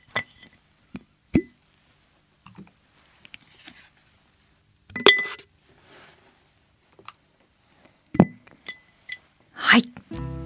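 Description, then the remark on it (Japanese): Coasters clink and clatter as they are put into a glass jar that has quite a few collected: a handful of sharp, ringing knocks at irregular intervals, fairly loud, with quiet rustling and shuffling between the louder hits. “ではコースターをガラス瓶に入れたいと思いますなんか結構溜まったかもこの音聞こえますか”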